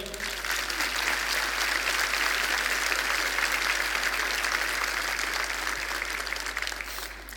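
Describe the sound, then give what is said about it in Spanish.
A church audience breaks into sustained applause for the Lord, a dense, steady wash of many hands clapping at an even loudness for several seconds before tapering slightly at the end. “Puede dar un aplauso al Señor?”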